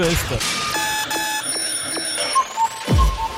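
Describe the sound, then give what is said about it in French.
An alarm clock rings with bright, layered electronic tones pulsing in a steady repeating pattern, loud, introducing the morning radio segment "SOS Réveil Tardif", while a voice briefly surfaces near the end. “SOS Réveil Tardif.”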